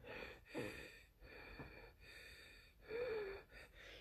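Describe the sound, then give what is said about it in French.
A slow, deep breath drawn in and then released, with soft airy rasps and no talking around it. “Respirer pour de vrai cette fois-ci. Une vraie respiration, là.”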